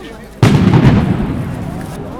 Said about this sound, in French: Je déambule un peu perdu sur la place de la Nation. La nuit tombe. ça fait un effet de souffle. j'entends les tirs. Enfin, ce que j'imagine être des tirs ou des pétards. Je ne sais pas trop.